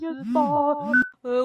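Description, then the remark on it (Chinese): A loud, melodic phone ringtone plays in short bursts of steady tones with sliding, swooping pitches, broken by a brief pause before it starts again, as calls keep coming in. “现在是回复留言，不是大家接电话，一直打来。”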